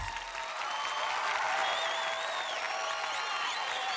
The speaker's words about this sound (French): des applaudissements. Ah oui, oups. C'est que j'aime bien les effets.